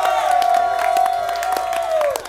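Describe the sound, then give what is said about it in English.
A live audience of fans at the Park MGM cheers loudly and steadily, a dense wash of whoops and shouts with one high sustained yell riding on top for about two seconds before it tapers off. “Oh, take us out for the great fans in attendance here, our great Let's hear it. at the Park MGM.”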